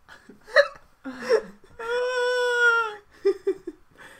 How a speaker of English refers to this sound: You have chronic hiccups.